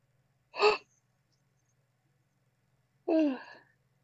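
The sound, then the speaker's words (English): A yawn: a quick sharp intake of breath, a pause, then a drawn-out voiced exhale that slides downward in pitch and fades. No talking. “I yawned. I wasn't freaking out.”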